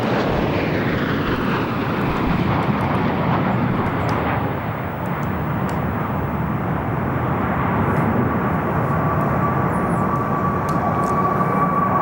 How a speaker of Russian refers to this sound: Группа тяжелых истребителей-перехватчиков э, МиГ-31К появляется следом э, глубокой модернизации перевооружения на ракеты «Кинжал» сделали авиационный комплекс «Грозной сдерживающей силы» ведущий группы майор Евгений Шалагин. МиГ-31К.